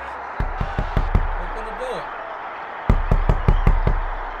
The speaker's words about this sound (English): knelt in the snow for three days and three nights, all the while knocking on the castle doors.